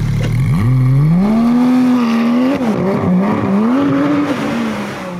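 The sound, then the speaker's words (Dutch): The engine of a new Porsche 911 GT3 sports car, standing outside the door, revs up and climbs in pitch, holding a loud, strained high-rpm roar with brief dips and surges before easing slightly at the end, with no talking. “Wat mij betreft, het beest van Porsche is dat. de eh, Nij staat hier voor de deur. Ja, een nieuwe 911 GT3.”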